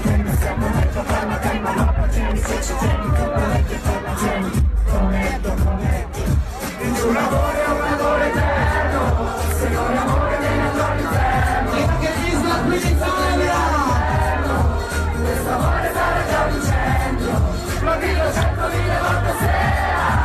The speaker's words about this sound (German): Videos, wo es dieses gemeinschaftliche Singen gibt auf dem Balkon, da hören wir jetzt gerade mal kurz hinein.